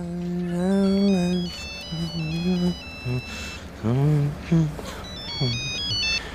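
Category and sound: signal or alarm, telephone ringing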